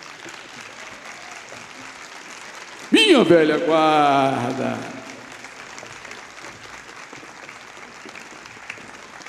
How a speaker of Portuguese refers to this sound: E agora a velha guarda da mocidade. E também as baianas. Uma salva de palmas, pessoal.